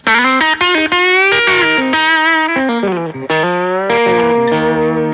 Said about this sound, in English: Then you can switch it up to let's say the uh, the humbucker there, the mini humbucker. Yeah. Like that, you know, twangy rock kind oh, of sound that humbucker.